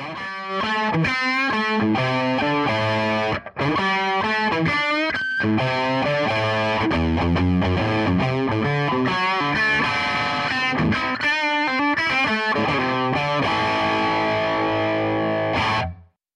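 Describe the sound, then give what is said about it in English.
An electric guitar, a Les Paul, played through a Super 59 tube amp from the Master Collection, EL34-powered with tons of headroom, giving a thick, overdriven tone. It plays a busy riff that mixes chords and single notes, staying loud and steady throughout, then cuts off abruptly. “Super 59 has got uh, EL34 uh, powered amp, tons of headroom.”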